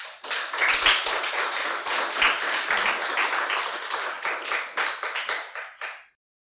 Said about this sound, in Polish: Oddajmy oklaski dla Boga.